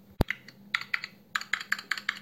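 Quick, uneven keystrokes clatter on a computer keyboard as someone enters personal data into a copy robot, coming in two short bursts with a brief pause between, opening with one sharper thump; no voices.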